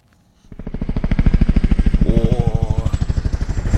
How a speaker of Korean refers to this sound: 헬리콥터 소리 이건 뭐 금방 찾을 수 있겠죠. 일부에 나가는 노래 가운데 이 헬리콥터 소리가 숨겨져 있습니다.